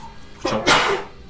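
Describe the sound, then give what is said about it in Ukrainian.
A single sneeze: a short sharp intake followed by a loud, breathy burst that fades quickly. “Будь здоров.”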